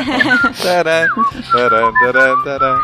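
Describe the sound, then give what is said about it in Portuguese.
A bright whistled tune, a run of short melodic notes rising and falling in a bouncy rhythm, close and fairly loud, with a fuller tonal backing underneath and no talking. “Mais uma vez assobiando na verdura.”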